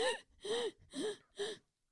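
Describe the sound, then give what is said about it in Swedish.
A person imitates their own panicked gasping from being unable to breathe, four quick, strained breaths in an even rhythm, fairly loud, each one harsh and breathy with a tense vocal edge. “alltså jag kunde inte andas, jag fick typ panik. Det var verkligen så här.”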